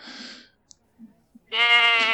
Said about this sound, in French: Non mais il arrête pas de gueuler ce con d'animal Mais il me répondra jamais mais c'est une chèvre